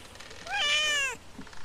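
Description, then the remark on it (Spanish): A single cat meow, fairly loud, rising and then falling in pitch over less than a second, with nothing else but faint background noise around it. “Mi vecino tenía un gato imaginario.”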